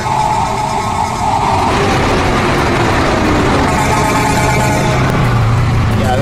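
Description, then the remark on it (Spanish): Several car horns honk together as applause for weavers, in a loud, sustained, overlapping chorus, their steady tones rising above a constant rumble of engine and traffic noise. “Aplauso a estos artistas del tejido, a los tejedores, a las tejedoras, su bocinazo de lujo.”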